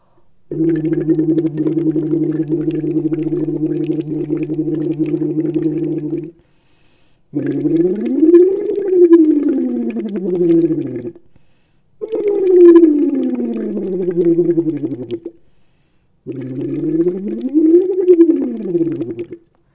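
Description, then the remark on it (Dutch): Steady bubbling as a voice hums through water with a bubble set during a voice exercise, first holding one long tone, then three separate sliding sweeps that rise and fall in pitch, with brief pauses between them. “Ik ga lekker bubbelen.”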